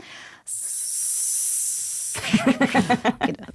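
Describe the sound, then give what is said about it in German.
A person makes a steady, fairly loud hissing noise with their mouth, mimicking an airbrush spraying, for about a second and a half, then starts talking. “Das war der, der Airbrush.”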